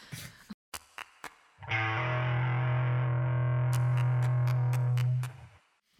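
A brief music sting: a few sharp percussive hits, then a loud, distorted sustained chord that holds for about three seconds with clicks on top before cutting off. No one speaks.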